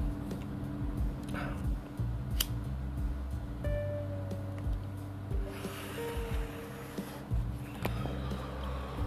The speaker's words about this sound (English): let me just light this up real quick. Hold on.